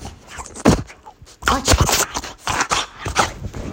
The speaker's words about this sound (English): my dog has a zoomy at this moment, and I'm not gonna hold like he's he's going all over the place. I don't know if you hear this.